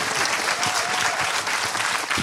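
An audience applauds steadily, a dense, continuous wash of many hands clapping at a fairly loud, even level with no voices standing out.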